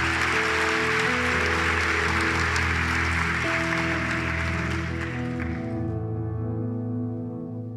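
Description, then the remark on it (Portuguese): A crowd claps steadily over sustained keyboard chords, the applause dense and fairly loud before fading out about two thirds of the way through, leaving the held notes ringing alone. “Se é para mim, não precisa nem aplaudir.”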